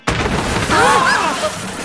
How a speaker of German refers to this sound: Mit der Handkante hatte Jaspara die Füllung der Eichentür zerschlagen.